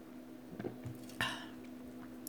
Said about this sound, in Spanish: Espérenme que tomo un sorbo.